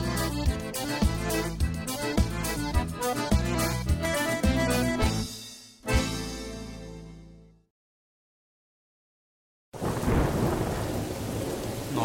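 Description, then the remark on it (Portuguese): Music fades out into a brief silence, then a loud thunderstorm suddenly bursts in: heavy, steady rain roaring with a deep low rumble of thunder underneath, and no voices. “Nossa, amor, essa tempestade horrível e você aí nessa calmaria.”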